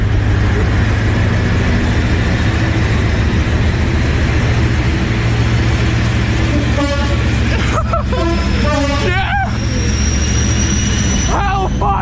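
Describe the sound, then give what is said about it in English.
A train with a locomotive called 'the 50' sounding its tones rumbles past at Leamington Spa, England, a loud, steady roar of engine and wheels throughout, with sharp metallic squeals and a rising whine breaking through toward the end. “this is you know that's a, a gay old time in England right there, watching the trains”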